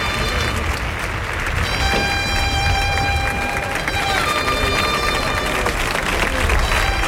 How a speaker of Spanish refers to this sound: Bueno, pues el picador se lleva la ovación de la tarde eh, eh, ah, de, los, montados.